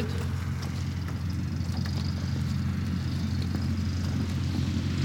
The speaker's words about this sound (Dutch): Het vliegtuig eh, wordt naar buiten gereden vanuit de, de hangar, klaargemaakt voor de vlucht naar uh, Rauwveen.